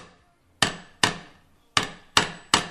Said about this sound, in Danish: Hver lille slag flytter så metallet en lille smule, og så kører jeg en cirkel rundt om pladen.